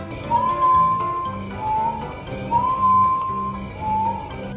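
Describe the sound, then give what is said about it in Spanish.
A yaimana bird, a bird of the jungle of Peru, sings clear, pure whistled notes in four slow, rising phrases, prominent, over a steady low background hum with scattered faint clicks. “La yaimana, un pájaro que vive en la selva del Perú y canta así.”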